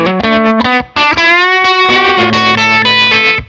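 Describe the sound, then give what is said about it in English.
A distorted electric guitar plays a lead line alone, its sustained notes pulsing rapidly with a tremolo effect as the melody moves through several pitches, loud. “And so anything with tremolo on it takes you to a kind of different place. And on a lead, it sounds really cool”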